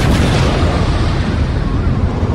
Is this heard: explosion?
yes